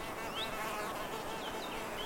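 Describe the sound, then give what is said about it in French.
A steady, dense drone of many bees buzzing together around fragrant white hanging clusters of tree blossoms, gathering nectar, a continuous hum with faint higher chirps of birds in the background; no one speaks. “L'émanation de ces inflorescences multiflores agglutine de nombreuses abeilles qui ne te calculent pas car trop intéressées à s'activer pour butiner le délicieux nectar.”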